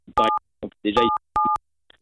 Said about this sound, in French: Voilà, je crois que vous appuyez sur votre téléphone avec la joue là parce qu'on entend sonner, on entend sonner votre téléphone. Euh, euh, voilà, je crois qu'il y, a un bug, il y a un bug de téléphone. C'est les touches,